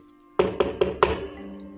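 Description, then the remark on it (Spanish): Four quick, evenly spaced knocks on a wooden door at night, fairly loud, with a short hollow ring fading after the last one. No voices are heard. “Tocan la puerta, güey, ¿no? Tocan la puerta.”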